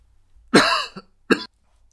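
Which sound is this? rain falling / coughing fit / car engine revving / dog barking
coughing fit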